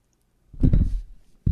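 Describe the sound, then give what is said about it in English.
A heavy series of muffled thumps and rattling bumps as a microphone is knocked over, lasting about half a second, followed by a brief pause and another sudden loud clunk. “And, uh, excuse me, I knocked the mic over.”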